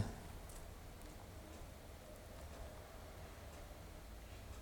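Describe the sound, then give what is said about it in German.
Faint, steady ticking of an analog clock repeats at a regular pace over a quiet background hiss, with no one speaking. “ich habe hier so eine analoge Uhr und die tickt ganz schön laut, wenn Michael nichts sagt”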